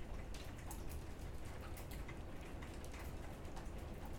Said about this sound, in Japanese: 東京すっごい雨で朝起きた瞬間からもう真っ暗みたいなそうでどんどんどあ朝起きてから雨じゃなかったななんかお昼頃からすごい雨降ってきたんかな多分そうで今2時過ぎぐらいから大粒の雨に変わって